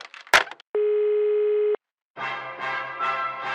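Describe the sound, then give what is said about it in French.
During a call to a bank, a sharp click of a phone hanging up, then a steady, loud telephone tone lasting about a second, a short silence, and a buzzy, pulsing electronic sound that follows. “Bah raccroche.”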